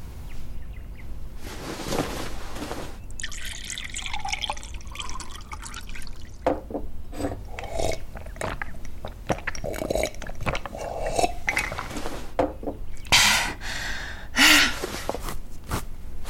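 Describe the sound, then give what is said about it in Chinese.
Water is poured into a cup in a few uneven splashing bursts, followed by brief sounds of drinking, with no talking. “呃，那个小姐，我能先喝口水吗？ 嗯，自己倒。”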